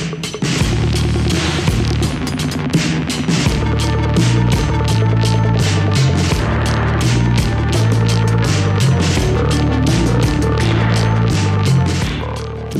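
A loud rock track plays on its own with driving, steady drum hits, heavy bass and dense distorted instruments, continuing at full volume before easing slightly at the very end.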